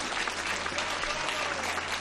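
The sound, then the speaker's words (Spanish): A large crowd of faithful applauds steadily as Pope Francis rises and walks with a cane, a dense wash of clapping that holds an even level throughout without breaks or speech. “Aplaudido por los fieles que ven el esfuerzo, madre mía, en nombre de esta edad y con estas dificultades.”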